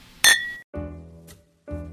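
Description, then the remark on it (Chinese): Glasses clink together once in a toast, a bright sharp chink with a brief high ring, followed by low, steady humming tones that fade in and out. “为你干杯，为你干杯。”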